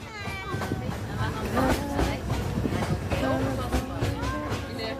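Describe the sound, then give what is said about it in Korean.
A train heading to Iguazu Falls rumbles steadily along the rails with a continuous low rolling noise, while several passengers on board sing and chatter loudly over it throughout. “노래를 부르며 이과수 폭포로 가는 기차 아닙니다.”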